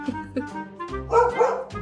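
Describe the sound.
A child's voice imitates a dog, playing the fourth puppy in a story being told, giving a quick run of high-pitched yips followed by a longer, louder whining bark and a final short yip.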